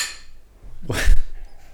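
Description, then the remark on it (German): A bright clink of glasses touching in a toast, with a brief high ringing tone that fades quickly and a soft rustle around it; no one speaks. “Äh, wir stoßen erstmal an, ne?”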